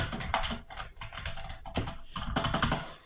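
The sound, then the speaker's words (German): Keys of an unplugged computer keyboard clack in a quick, uneven stream of presses, fairly loud, with no one talking. “ist meine Tastatur die ich auch nicht angeschlossen habe, denn ich zocke mit Controller.”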